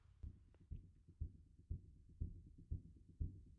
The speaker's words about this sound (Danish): Lidt smule lavt her nu, men uh, det bliver bedre. Det lyder bare, som om man står og stemmer sin bas.